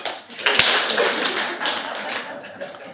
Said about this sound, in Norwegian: Tusen, tusen takk for nydelig sang og musikk, altså. Skal vi ta og gi dem én klapp?